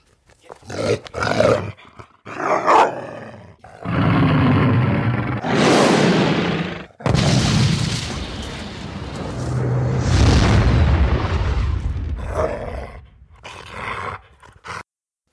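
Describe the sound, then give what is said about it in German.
A dachshund's bark turned into a booming, roaring blast: a few short bursts, then two long, loud, rumbling explosions, with no talking. “Aber es klingt nicht wie Bellen.”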